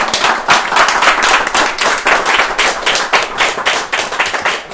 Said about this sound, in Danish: Ja, så vil jeg gerne, jeg synes, vi skal klappe hinanden.